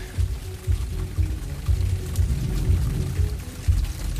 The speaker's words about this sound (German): Toll, es regnet. Wird immer besser.